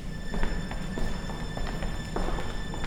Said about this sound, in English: And so, you're kind of expecting it, and you hear boots coming down the hallway